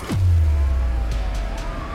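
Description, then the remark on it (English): Ambulance sirens as ambulances speed to a scene, with a deep tone sliding down into a steady low drone and a fainter wailing tone above it, loud with no one speaking. “As the ambulances sped to the scene, Dorner was already long gone.”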